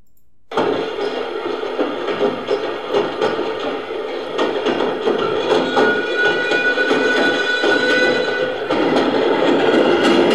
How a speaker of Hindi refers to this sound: आठ down passenger train का engine सीटी बजाता हुआ आगे दौड़ रहा था